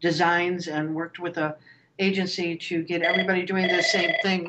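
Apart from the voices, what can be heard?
telephone ringing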